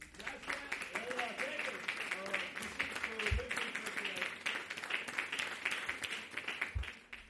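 A band's song plays loudly and densely, with a wash of distorted, crashing instruments and a wavering vocal line throughout, plus a couple of heavy low thumps.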